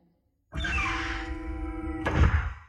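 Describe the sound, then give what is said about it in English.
An inner door in a corridor, leading into a dental surgery, slides open with a sustained mechanical hum and rumble that rises sharply at the start, then ends in a solid thunk as it stops. No voices. “An inner door in the corridor slid open.”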